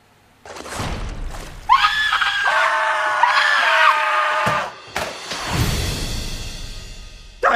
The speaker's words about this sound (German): Und äh, wir haben auch einen schönen Trailer dazu. Und da schauen und hören wir jetzt gerne mal hinein.